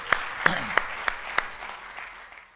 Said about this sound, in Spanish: Denle un fuerte aplauso a nuestro video.